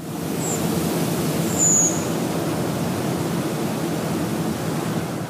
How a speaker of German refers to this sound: Ja, und mit dem Ruf, dem Gesang, wie auch immer, der Rotdrossel, bedanken wir euch bei euch.